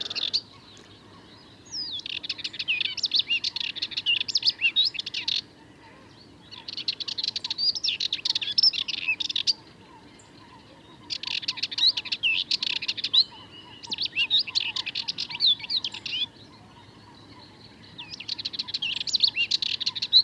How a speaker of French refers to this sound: on pourrait l'appeler la fauvette mitraillette, tant son chant est rapide